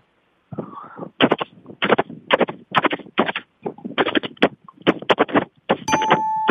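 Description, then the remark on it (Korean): A voice imitates a horse running at a gallop with quick, rhythmic clicking bursts in uneven pairs and triplets, loud, ending in a brief sustained tone. “말 달려가는 소리입니다.”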